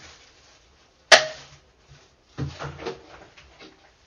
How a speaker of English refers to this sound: And basically what that was was I pushed the plunger the rest of the way down and it kind of popped it out in this puck kind of thing. And it just goes very neatly into your trash and there's very little mess.